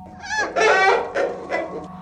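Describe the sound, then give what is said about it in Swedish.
A hen clucks and squawks in several loud bursts, a long drawn-out call followed by shorter ones in an uneven rhythm. “På avstånd kunde jag se en deformerad höna.”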